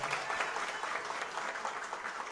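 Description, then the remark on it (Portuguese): An audience in Ceará, Brazil bursts into steady applause in solidarity with the state's first woman governor, dense overlapping claps sustained at an even level throughout, with no voices standing out above the noise. “Portanto, eu quero aqui pedir uma salva de palmas em solidariedade à primeira mulher governadora da história desse Estado do Ceará.”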